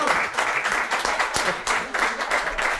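An audience in an Irish pub applauds steadily, a dense, continuous wash of many hands clapping at a fairly loud, even level for a few seconds, with faint voices mixed underneath.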